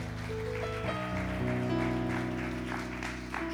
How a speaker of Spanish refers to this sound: Dar un aplauso si puedes al Señor.